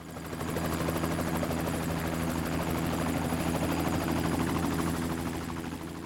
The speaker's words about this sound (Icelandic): Björgunarsveita var þyrla landhelgiskeslunar TF SIF kölluð út